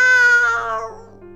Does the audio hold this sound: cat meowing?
yes